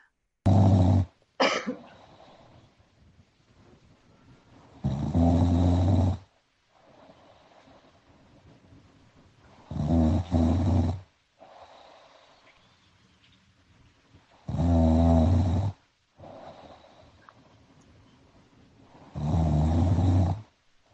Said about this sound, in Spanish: le dije, ronca todos los días, no va a ser problema para ti. Mándame, por favor, el audio.